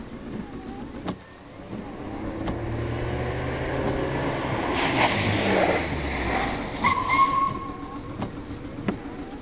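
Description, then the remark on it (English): A Ford Anglia car engine rumbles steadily, with a rush of noise midway and a brief high squeal like brakes before the motor settles as the car stops. No one speaks. “I very much doubt we can outrace it in a Ford Anglia.”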